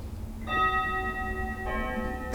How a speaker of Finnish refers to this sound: Symbolinen kello. Paljon me pitää. Kello soittaa.